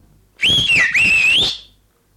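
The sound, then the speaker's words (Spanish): A milkman's whistle, loud: two quick sliding phrases with a brief break between them, the pitch dipping and rising, with no one talking. “Y silbido de lechero lerón.”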